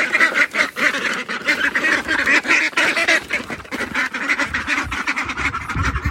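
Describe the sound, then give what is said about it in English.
A flock of ducks quacks and honks continuously, a dense, busy chorus of overlapping calls, steady and loud for the whole stretch with no talking. “These ducks”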